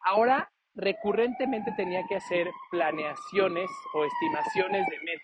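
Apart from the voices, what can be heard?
ambulance siren passing outside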